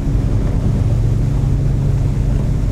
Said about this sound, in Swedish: Ehm, inte så mycket folk här nu, mest ganska stora båtar som ger sig iväg